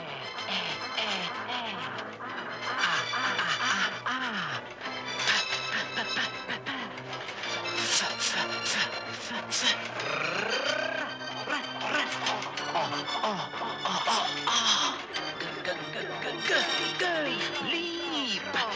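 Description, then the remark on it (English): The intro theme of a late-1970s or early-1980s educational TV programme: a dense, busy electronic tune with warbling synth tones, swooping pitch bends and layered bleeps, playing continuously at a steady loud level with no voices. “That was from Leapfrog, which was an ATV educational program from kind of the, the sort of late 70s, early 80s”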